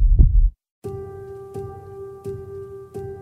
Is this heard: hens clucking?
no